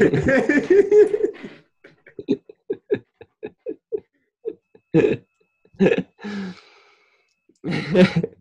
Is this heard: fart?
yes